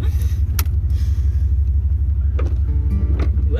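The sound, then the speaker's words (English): Steady low engine drone and road rumble from inside a moving car, loud and continuous, with a few sharp clicks or bumps scattered throughout and no talking. “It's gonna be real tricky in the car, so here we go. Okay, I'll drive slower.”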